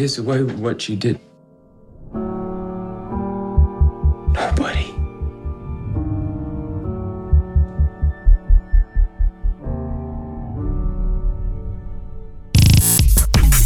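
A dark, droning score from the first teaser trailer of the film Nocturnal Animal, with a low throbbing hum and repeated heartbeat-like pulses, sustained tones layered throughout, ending in a sudden loud burst of noise.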